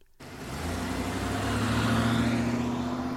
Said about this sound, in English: Then he and the man with the yellow hat got into the car to drive to the movie studio.